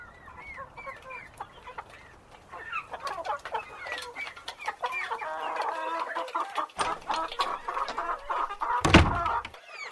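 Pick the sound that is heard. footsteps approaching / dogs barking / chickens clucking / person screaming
chickens clucking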